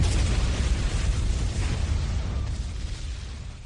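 A loud, sustained roar from a car bomb explosion, thick rumbling noise filling the space with deep low-end weight and slowly fading over a few seconds, with no voices.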